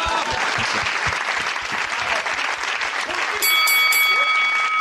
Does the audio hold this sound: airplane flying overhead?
no